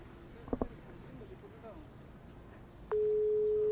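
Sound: telephone ringing tone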